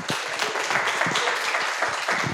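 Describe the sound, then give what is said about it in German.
Steady, dense applause from an audience welcoming a preacher at a Team Night, many hands clapping at once in a continuous crackling wash that holds an even loudness throughout, with no voices over it. “Aber äh, ich bin sicher, das wird richtig cool und äh, lasst uns doch mal wirklich mit einem fetten Applaus begrüßen.”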